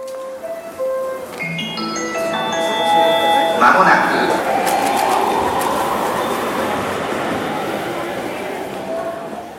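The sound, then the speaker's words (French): A short musical jingle opens with a quick run of rising synth tones, then blends into a loud, steady rumble like a passing train that fades slightly toward the end. “Et comme c'est devenu maintenant la tradition sur Tabibito, je vais vous laisser, vous, avant d'y et Benjamin, lancer notre jingle.”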